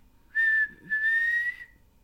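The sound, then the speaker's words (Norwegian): Two breathy whistle attempts, a short puff and then a longer blow, mostly rushing air carrying a thin, faint, wavering tone, with no talking. “Hva er en ting du ikke kan? Plystre.”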